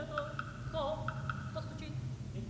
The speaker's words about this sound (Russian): Это сцена появления вот этого Сергея, работника, который под предлогом книжки, которую он хочет попросить почитать у Катерины, приходит поздним вечером, ночью в ее комнату. Вот раздается стук.